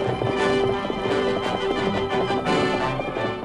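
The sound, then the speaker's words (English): Rapid, thundering hoofbeats of the Lone Ranger's great horse Silver galloping across the plains pound steadily and loudly throughout, dense, with a bright sustained tone ringing over the rhythm. “No hoofs had ever beat the plains like those thundering hoofs of the great horse Silver.”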